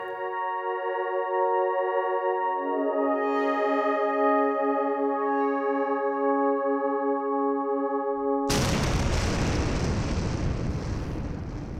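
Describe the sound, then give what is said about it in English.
A steady, droning harmonic whine shifts and builds for several seconds, then cuts abruptly into a loud, roaring explosion sound effect that rumbles on with broad noise. No one speaks. “That was the sound of my mind exploding.”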